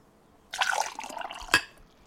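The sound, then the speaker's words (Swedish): Water is poured steadily into a glass for about a second, for a listening test of whether it is warm or cold water, a bright splashing stream that ends with a sharp clink or final splash. “om det är varmt eller kallt vatten som hälls upp i ett glas”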